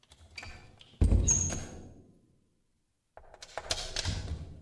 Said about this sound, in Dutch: Terwijl hij daar vaag over nadacht, luisterde hij onbewust naar de geluiden die uit de diepte van het gebouw gedempt zijn kamer binnendrongen. Het openen en sluiten van een deur.